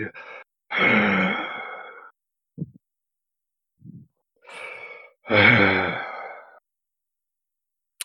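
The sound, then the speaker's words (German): A voice imitates a deep, guttural moan twice, each a long, low, throaty groan of a second or more, with a few faint breathy sounds in between. No words are spoken. “Ähm, die Person bleibt einfach nur stehen und du hörst ein sehr tiefes, ja, ein Grunzen ist es nicht unbedingt, aber ein sehr tiefes, kehliges Stöhnen, so.”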